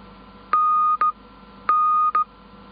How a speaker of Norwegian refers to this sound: Jeg sier med munn først hva jeg sender, og så kommer lyden med morsenøkkel. N, den sier næ-nin, næ-nin.